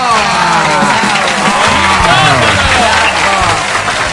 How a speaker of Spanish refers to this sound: Un aplauso fuerte para ella, por favor.